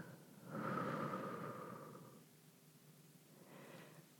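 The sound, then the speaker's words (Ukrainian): A woman's long, slow, deep breath out beside a spruce tree, breathy with a slight whistling edge, followed after a short pause by the soft start of another breath. “Коли вона дихає так глибоко, вона помічає, що разом з її диханням ялина то піднімає, то опускає своє гілля.”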